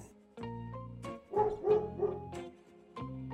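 A dog barks several times in short, tonal bursts, with a brief pause between a cluster of yips and a final bark; clear, with no one talking.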